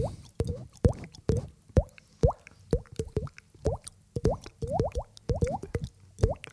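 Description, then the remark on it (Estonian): A mouth beatboxes falling raindrops as the intro of a rainy-day album: a quick, uneven run of wet plops, each with a short upward-bending pitch, steady and fairly loud with no talking over it. “see on see vihmase päeva album, algab, see on intro mm.”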